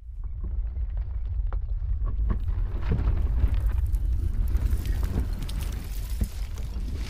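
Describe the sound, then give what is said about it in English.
A deep, continuous rumble of the houses on either side collapsing one by one as the ground shifts, heavy low-end roar swelling slightly midway, with scattered crackles and debris-like clatter on top, steady throughout without any voices. “I move towards it, and the houses on either side of me begin to rumble.”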